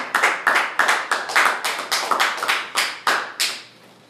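Applause for the next performer comes as a steady run of about thirteen sharp, crisp claps in an even rhythm, fairly loud, ending with a quieter fading tail and no voices.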